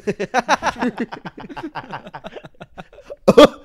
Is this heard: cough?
yes